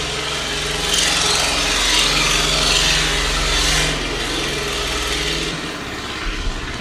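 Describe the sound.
A voice imitates a tractor engine in a field: a steady, rough droning rumble with a buzzing, gravelly edge, held continuously for several seconds before tapering off near the end.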